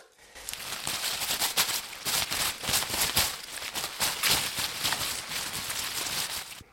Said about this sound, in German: Ich habe einen Endiviensalat mitgebracht. Eva, raschelst du den mal?